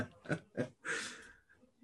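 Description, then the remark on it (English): A person imitates snoring: two short, rough snorting inhales followed by a longer, airy exhale, fairly loud, with no talking. “I've had fear of snoring.”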